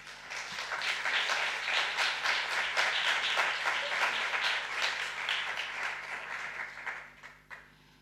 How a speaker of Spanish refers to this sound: Pues venga, eh, no podemos tener más ganas de, de escucharlo, así que con este aplauso retoma